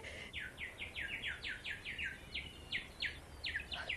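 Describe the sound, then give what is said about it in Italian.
Many small birds chirp and flutter around a person in a quick, steady series of bright, high notes, fairly clear over a soft background hiss, with no one speaking. “Quanti uccellini mi svolazzano intorno.”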